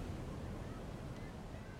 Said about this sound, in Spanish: Eso que se escucha a lo lejos es el mar Caribe.